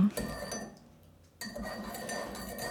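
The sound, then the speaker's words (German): A spoon stirring a drink, with continuous light metallic clinking and scraping against the cup that pauses briefly midway and then resumes. No one speaks. “Magst du gleich umrühren? Ja, das hört man.”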